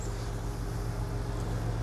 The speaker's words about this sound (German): das Geräusch, was Sie hören, das ist die Mosel. Das ist so ein großes Ausflugsdampfer hier.